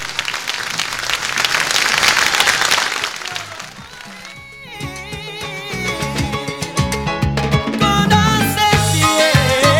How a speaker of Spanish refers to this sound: Un gran piloto que tuvimos acá en la ciudad, así que le mandamos un gran el aplauso para Fabián Acuña. Vamos, Fabi.